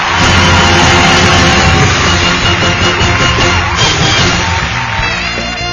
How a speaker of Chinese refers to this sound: 有请海大夫。 这个海大夫上台，掌声自然来。